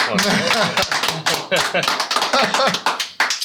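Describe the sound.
Steady applause fills the whole stretch, a dense patter of many hands clapping at a fairly loud level, with murmuring voices blended underneath.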